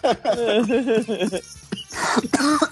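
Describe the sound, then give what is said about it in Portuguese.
A loud burst of rhythmic voiced laughter breaks off and turns into harsh, raspy coughing, a few rough coughs in quick succession at the end. “O primeiro, o primeiro meio segundo é uma risada, os outros 10 segundos é uma tosse.”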